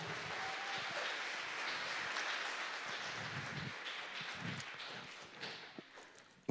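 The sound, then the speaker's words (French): An audience in a hall claps steadily for two people in a dense, continuous patter of many hands, holding a fairly even level before thinning out and trailing off toward the end with a few scattered final claps. “Vous applaudissez parce que vous êtes content que je continue pas l'histoire.”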